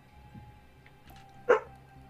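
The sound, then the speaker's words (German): A person imitates a dog with one short, sharp, loud bark over a faint background hum, then quiet follows. “Warum bellst du mich an?”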